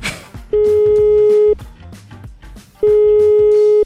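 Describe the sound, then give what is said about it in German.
A phone ringback tone sounds twice as hosts of the radio show Perfekt geweckt call a listener to play a Christmas song, each steady mid-pitched tone lasting about a second with a pause between, over a low background of music or noise. “Wir rufen euch jetzt an und spielen euch ein Weihnachtslied vor, das ihr weiter singt.”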